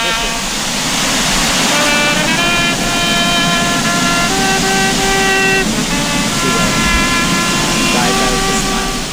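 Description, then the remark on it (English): A steady, loud roar of rushing water from a waterfall in Iceland fills the whole clip, with a trumpet playing a series of sustained notes over it. “So that is a waterfall in Iceland.”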